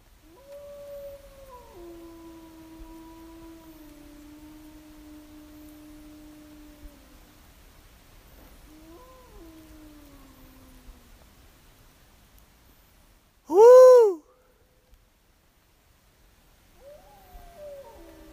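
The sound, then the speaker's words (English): Wolves howl back in response to a person's howl, in long, sustained, wavering tones, several voices overlapping, with a brief loud burst of a higher call near the end and no talking. “And then they howled back.”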